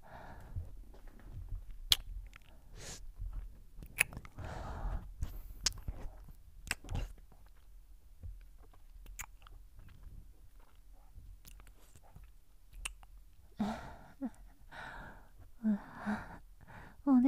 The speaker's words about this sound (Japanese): じゃあもう片方の耳も舐めてあげるね